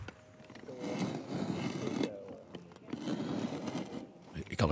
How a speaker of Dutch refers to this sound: Het is het geluid van een grondboor.